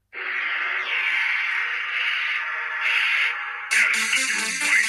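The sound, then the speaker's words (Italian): A single voice loudly vocalizes the theme tune of the 1995 film Mortal Kombat in one sustained, unbroken line without words, turning harsher and noisier toward the end. “c'è una musica, ragazzi, che ci frulla in testa ormai da, da, da, da parecchi giorni, che fa più o meno così.”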